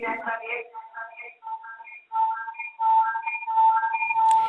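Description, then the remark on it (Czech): A steady, piercing feedback whistle from a caller's radio holds one pitch and grows louder over a few seconds, while a voice talks over it on a phone line. “Musíte si stlumit rádio, jinak to nepůjde. Sama to slyšíte, jak hodně to vás bí, takzvaně.”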